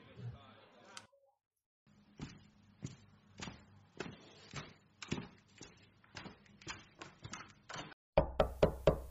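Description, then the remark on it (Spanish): A steady series of sharp knocks on a door, evenly spaced, runs for several seconds before a brief pause, then a louder, quicker burst of knocking closes the sequence. “Es el primer anuncio que se oye tras la puerta luego de los tres golpes de siempre.”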